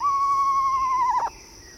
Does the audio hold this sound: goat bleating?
no